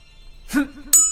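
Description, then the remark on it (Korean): A short voiced sound, then a single clear, bright bell ding that rings on with a high, sustained tone, louder than what came before; the bell sounds as a figure rolls over in a somersault-like turn. “바퀴를 돌 때마다 청한 종소리가 들렸다.”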